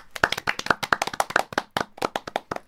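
A few people clap together in quick, irregular sharp bursts, a loose round of applause that keeps going steadily for a few seconds with no talking over it.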